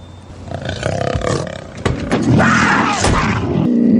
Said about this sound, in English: It's a cougar in the car. Oh, there's a cougar in the car. I put it in there. You got to learn to drive with the fear. And there ain't nothing more frightening than driving with a live cougar in the car.